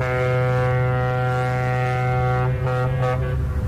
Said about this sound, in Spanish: En cualquier momento, entre las 6 y las 11, sonará una bocina como esta.